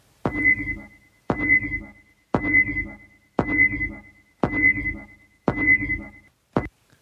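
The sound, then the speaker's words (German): The motion tracker from the 1986 film Aliens (Alien – Die Rückkehr), beeping in a steady rhythm: six sharp, high electronic pings about a second apart, each with a short ringing tail, followed by a brief clipped start of a seventh. No voices. “Und worum es geht, ist der Ton, ist von dem Motion Tracker und worum es geht, ist Alien und zwar der zweite Teil, Alien die Rückkehr.”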